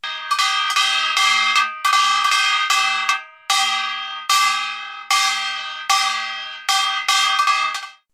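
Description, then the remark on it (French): A small metal gong, the kkwaenggwari, played by the leader of a samul nori ensemble, struck in quick clangorous rhythmic groups, bright and ringing, with pauses between phrases and short decays; loud, no voices. “C'est un instrument comme petit comme métal, métallique.”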